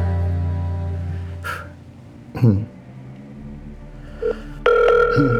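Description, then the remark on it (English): A phone call being placed: a steady tone and a few clicks, then a loud electronic ring tone starts up near the end, clear, with no talking. “Should I try to call it for fun?”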